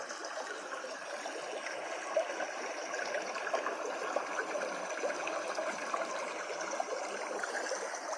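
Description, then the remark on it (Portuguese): A stream flows steadily with a continuous bubbling, trickling wash of water, even in level throughout, with small splashes breaking through now and then. No voices. “Continue caminhando nesse córrego. Escute o fluxo da água.”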